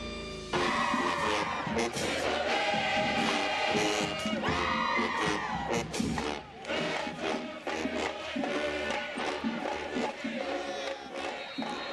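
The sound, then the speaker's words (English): The Southwest DeKalb High School Band plays loudly and continuously on a Friday night, brassy sustained notes over thumping drums, while a crowd cheers and shouts throughout for about eleven seconds. “Southwest DeKalb High School Band bringing us back on the Scoreboard Show on this Friday night.”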